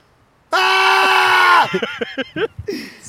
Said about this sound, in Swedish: Men du är så ansträngd, man kan inte skrika så här länge. Ont i halsen.